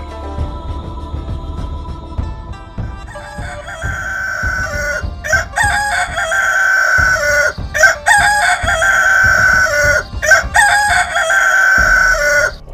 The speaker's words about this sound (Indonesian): Suara ayam pun samar-samar terdengar.